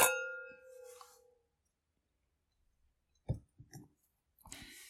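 A sharp clink of glasses touching in a toast, leaving a bright, high ringing tone that fades over about a second, followed by a few soft knocks and rustles.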